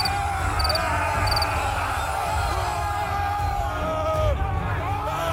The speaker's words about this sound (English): the sound of panicked men suddenly filled the air. The Germans were coming.